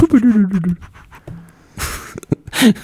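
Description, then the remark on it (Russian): A voice imitates an Alice smart speaker shutting off: a falling hum that sinks in pitch, followed by a couple of short, breathy hissing bursts. “Эта колонка Алиса отключилась, блядь.”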